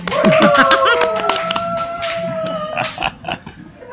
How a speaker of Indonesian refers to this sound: Tepuk tangan dong.